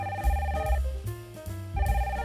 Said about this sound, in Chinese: 番茄都还没讲完话，电话就响了。 啊，电话响了，我去接。